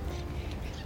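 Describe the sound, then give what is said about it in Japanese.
Birds call outdoors during a walk under an overcast rainy-season sky on a chilly day, a brief burst of harsh, quacking-like cries over a steady background rumble, with no talking. “はいということで今日はウォーキングをしながらちょっと収録してみています鳥の声なんかがね少し聞こえるかなと思うんですが”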